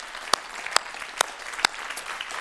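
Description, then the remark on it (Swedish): An audience at a church service applauds visiting friends from Uganda: a steady, dense patter of clapping with a few sharper, louder individual claps standing out at regular intervals, and no one speaking over it. “Wonderful, ska vi ge dem en applåd, våra vänner från Uganda?”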